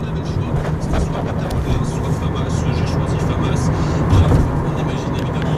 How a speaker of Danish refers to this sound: Klokken er halv seks, og nu sidder øh, en taxa på vej til Gare de Lyon. Der er næsten ingen biler på gaden.